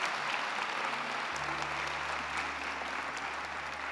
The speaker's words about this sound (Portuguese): Se você está sentindo a presença de Deus aqui, por favor, dê um glória a Deus bem forte. Dê uma salva de palmas ao Todo-Poderoso.